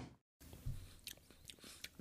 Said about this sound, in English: This is a double berry margarita from Weathered Souls Brewing in San Antonio, Texas. Let me uh, get a good sip of this. Interesting.